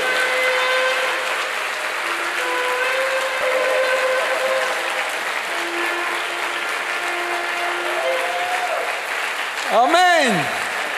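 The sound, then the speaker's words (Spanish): An audience applauds loudly and steadily for about ten seconds, with sustained keyboard-like tones beneath the clapping and a brief swooping, falling tone near the end. “Fuerte ese aplauso al que vive.”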